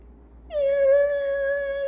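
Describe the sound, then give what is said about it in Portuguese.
A voice imitates squealing bicycle brakes: one high, steady, whiny squeal that starts abruptly and holds for over a second, fairly loud, with no talking. “Esse foi o meu barulho de freio de bicicleta.”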